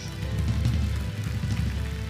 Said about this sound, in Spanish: Un aplauso a Jesús.